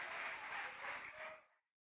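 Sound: audience applauding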